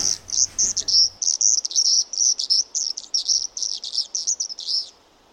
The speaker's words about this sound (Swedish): Det låter ju fruktansvärt. Säger du? Men det är ju flodsångare i bakgrunden.